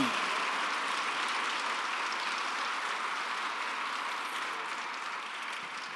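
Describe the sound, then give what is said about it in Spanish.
A church audience applauds God in a dense, sustained wash of clapping that holds steady for several seconds before easing slightly at the end, with no clear voices over it. “Si le vas a aplaudir, apláudele con todo tu corazón.”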